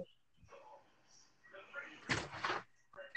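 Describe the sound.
A door opens and closes, producing a short, loud clatter in two quick bursts, with soft room noise and faint voices around it, as a person walks through the door while a phone is recording.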